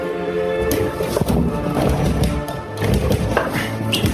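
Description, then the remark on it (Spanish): A professor struggles with a door, with repeated knocks, thumps and rattles in an uneven rhythm over a steady tonal background. “El profesor forcejea con la puerta.”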